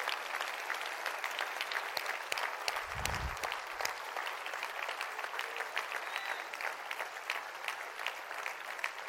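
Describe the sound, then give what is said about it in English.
A large church audience claps steadily for its members aged 65 and older, dense overlapping applause at an even loudness for several seconds, with a brief low thump partway through and no one speaking. “If, yeah, hey, would you give these people a hand this morning?”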